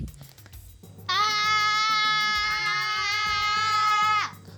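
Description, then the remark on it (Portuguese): A child's voice lets out one long, loud, high-pitched scream for help that holds steady for about three seconds, after a moment of faint background noise. “Eu vou gritar bem alto para todo mundo ouvir e vir me salvar.”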